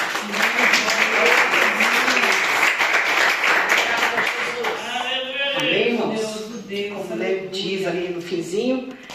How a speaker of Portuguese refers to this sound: Eu agradeço a oportunidade e as palmas que adorem ao Senhor.